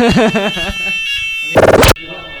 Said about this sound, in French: Donc un changement de lieu plus tard euh, pour cause alerte incendie, euh, comme vous avez pu l'entendre.